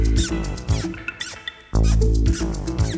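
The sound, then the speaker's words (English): Several short, high-pitched squeaks chirp in quick, irregular bursts over a steady low hum, each sharp and thin like rubber soles squeaking on a slick floor. “shoes started to squeak.”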